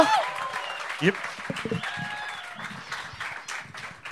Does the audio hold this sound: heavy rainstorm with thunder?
no